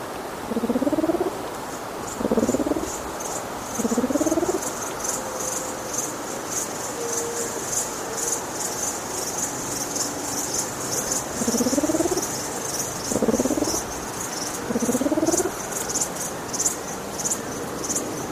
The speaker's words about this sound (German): Hören Sie nun die Lautäußerung der Mauritiusfruchttaube Alectroenas nitidissima.